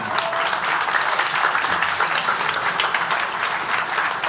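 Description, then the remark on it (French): Steady audience applause for the experts at the Catapulte grand final fills the whole stretch, a dense wash of many hands clapping at a constant, fairly loud level with no voices standing out. “On applaudit nos experts, s'il vous plaît.”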